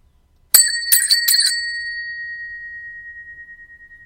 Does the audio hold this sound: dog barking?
no